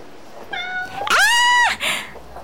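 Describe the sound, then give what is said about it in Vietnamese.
A cat meows, one long rising-and-falling cry preceded by a softer meow and followed by a short trailing call, with no talking over it. “anh có mèo hả ờ đúng rồi em con mèo này à, chủ nó mới gửi ở đây để về quê ăn tết”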